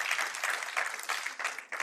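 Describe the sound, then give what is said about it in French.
An audience applauding God together, a dense, steady wash of many hands clapping at once, with slight surges and dips in intensity over a couple of seconds. “Est-ce qu'on peut applaudir notre Dieu qui nous aide, qui crée en nous une volonté de le connaître?”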